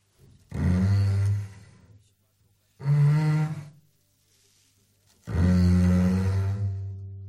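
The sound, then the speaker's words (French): Three loud, drawn-out elephant snores, deep and throaty, each a rumbling groan lasting about a second with brief pauses between, unaccompanied by talk. “Qu'est-ce que ça ronfle fort, les éléphants comme les papas.”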